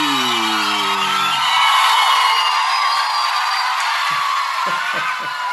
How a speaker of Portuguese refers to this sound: Muitas palmas e alegria, meu povo.